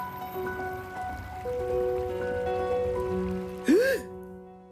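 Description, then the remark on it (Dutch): Steady rain patters throughout at moderate volume, mixed with sustained tonal music and a brief rising-and-falling whistle-like swoop near the end. “regen valt tegen en op mijn gezicht.”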